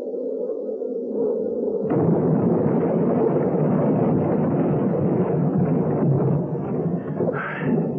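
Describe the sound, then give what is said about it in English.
The crash impact of the Eagle leader aircraft, one mile south of the first pickup: a low droning hum gives way after about two seconds to a sudden heavy crash, then a loud, sustained roaring rumble that churns on to the end. No voices. “Impact one mile south of first pickup.”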